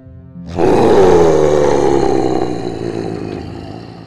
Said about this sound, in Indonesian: mereka meyakini kalau suara erangan itu adalah pocong duloh yang terkubur puluhan tahun di hutan Gantarawang